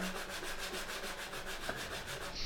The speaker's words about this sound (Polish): No bo słuchajcie, jak gładzikiem teraz jeżdżę, o, jeżdżę gładzikiem, a jak myszką teraz jeżdżę.